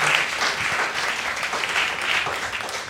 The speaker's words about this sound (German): Ähm, einen großen Applaus für euch beide. Dankeschön. Danke, danke.